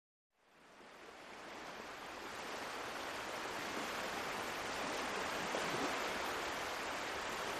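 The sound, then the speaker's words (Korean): A steady, dense roar of rough surf fades in after a moment of silence and holds loud and constant, with a broad windy hiss blended through it. “까닭 없는 상실감이 해일처럼 밀려오는데 거친 파도 소리, 바람 소리 틈에서 닥터백의 목소리가 들리는 것 같았다.”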